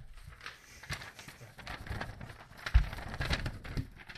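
Paper crinkling and rustling as a written note is handled, in irregular crackly bursts throughout, getting busier and somewhat louder in the second half, with a few sharper crackles standing out.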